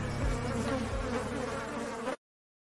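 A steady buzzing of a bee or wasp drones continuously for about two seconds, then cuts off abruptly into silence. No one speaks.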